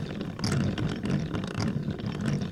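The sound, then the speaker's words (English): A gear mechanism running in reverse, like the reverse gear of a car transmission, grinds and whirs steadily, with a low rumbling churn and recurring clicks and scraping bursts every half second or so, no voices. “If you had a stethoscope on the transmission of your car, you might hear these noises.”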